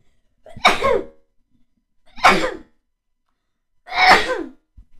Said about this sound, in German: Ähm, ich muss niesen.